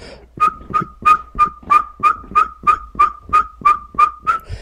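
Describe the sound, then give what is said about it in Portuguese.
A person whistles an imitation of a pygmy-owl's continuous call: a steady, evenly paced run of about a dozen short, clear hooting notes, unaccompanied by talk. “Caboré Super contínuo.”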